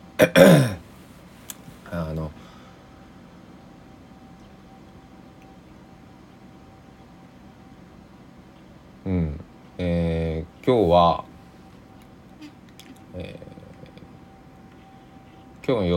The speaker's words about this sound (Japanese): いやまだね起きて10分ぐらいで今音がしてると思うんですコーヒーを入れるためにお湯を沸かしていますそれの音ですケトルの音がします